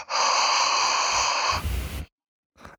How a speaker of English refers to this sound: just did a really deep breath into the microphone. I hate people's breathing. It sounds terrible on podcasts.